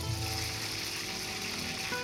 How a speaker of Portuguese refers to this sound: A receita é igual à feita no Brasil. O pão dormido passa pelo leite, pelos ovos e vai para a panela com óleo.